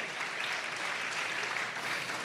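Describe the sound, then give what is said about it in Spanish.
Steady audience applause, a dense wash of many hands clapping at an even level throughout, with no talking over it. “Aplaudan los que piensen que se va a, a, librarle un montón de dolores de cabeza.”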